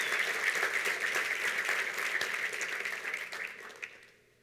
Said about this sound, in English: We deserve a, a hand clap for those people. Debemos darle un aplauso a esas personas.